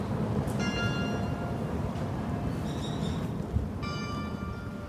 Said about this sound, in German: Das Rathaus hat ein Glockenspiel